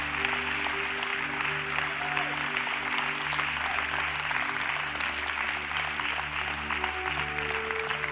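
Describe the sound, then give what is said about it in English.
An audience claps steadily and loudly to cheer on couples as they come forward, a dense, continuous wash of applause over a low sustained musical hum, with no voices standing out. “Can we cheer all these couples on as they come?”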